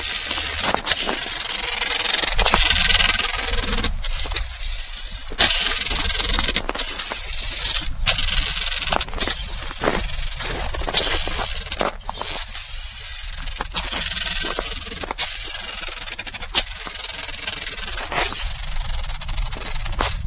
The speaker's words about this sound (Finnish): On todella tuttu ääntä menneiltä vuosilta. Tämä on nimenomaan sitä kirskuttelua ja se ei synny kuin tämmöisellä vanhalla kunnon, ei sauvalla vaan porkalla. Jossa siis somman alla on vähintään 10 senttiä ennen kuin tulee sitten tämä teräosa.